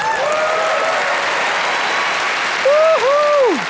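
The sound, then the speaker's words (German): A crowd applauds with steady, dense clapping throughout, joined by a few sharp, sliding whistles near the start and again louder toward the end. “Das war ja mehr Applaus als äh, bei den Rennen unter der Woche.”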